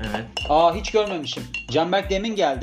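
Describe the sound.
A spoon clinks against a drinking glass a few times, short bright taps scattered beneath steady conversational speech.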